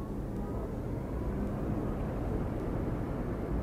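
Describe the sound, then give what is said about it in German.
Inside an electric car as it accelerates briskly after being started: a steady low rumble of road and motor noise fills the cabin continuously, with no voices and no engine revving. “Erstaunlich zügig beschleunigt das Gefährt, und zwar ohne das Gebrumme eines Verbrenners. Doch völlig lautlos ist das Elektroauto nicht.”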